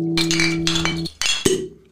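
Glasses clinking together in a toast, with a couple of bright ringing chimes and a sharp final clink, leaving a sustained glassy ring.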